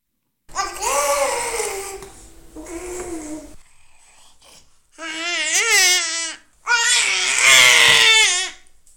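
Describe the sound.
A child imitates a velociraptor with a series of loud, shrill, wavering screeches, four bursts in all, the later ones longer and harsher, with a brief quiet gap in the middle.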